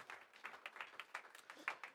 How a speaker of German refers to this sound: Danke, geben Ihnen einen, Lob, einen Applaus. Danke an, an das wunderbare Team heute.